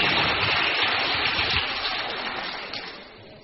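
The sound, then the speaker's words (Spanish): A crowd at a group meeting applauds a member who shared results: a dense, steady wash of many hands clapping together, fairly loud at first and gradually tapering off toward the end, with no voices over it. “Muy bien, un aplauso.”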